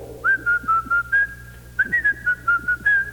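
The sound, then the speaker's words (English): A person whistles a bright, bouncy tune in two short phrases of quick, evenly spaced notes, clear, with a brief pause between the phrases. “you know, whistle while you work.”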